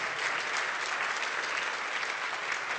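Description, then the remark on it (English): A crowd claps steadily for the news that construction of a long-prayed-for building will begin in early May, a dense wash of many hands applauding at an even, sustained level with no voices standing out. “Yeah, you can go ahead and clap for that.”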